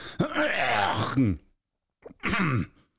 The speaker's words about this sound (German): So ein bisschen belegt oder fühle ich nur das in diesem Moment. Guck mal, jetzt räusper ich mich.